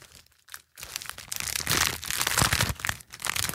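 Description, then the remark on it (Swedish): Crinkly gift wrapping paper that looks like the back of a CD is unwrapped from a present, a loud, bright stream of crackling and rustling with sharp crunches and tearing bursts, briefly pausing before continuing, with no talking. “Det är ett sånt fantastiskt eh, omslagspapper också, ja.”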